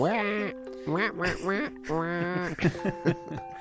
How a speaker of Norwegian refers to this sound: Yoshi's Island-musikken, den husker jeg. Hører jeg sånn... i hodet mitt ja. Eh, nå, faktisk.